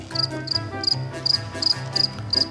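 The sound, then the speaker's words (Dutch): Crickets chirp in a steady, repeating rhythm, short high-pitched trills pulsing about three times a second over a soft low hum, moderately loud, with no talking. “Vogeltjes. Crickets.”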